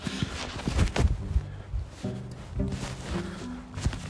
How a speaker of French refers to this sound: Un instant, je vais essayer de mettre mon deuxième gant parce que j'ai genre mais froid aux mains et c'est pas facile avec. Oh la vache, je crois que j'ai compliqué un peu la tâche.